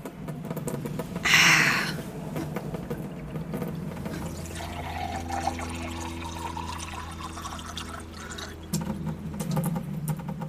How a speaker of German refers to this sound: Dann Wasserhahn an, würde ich sagen. Lassen wir es laufen.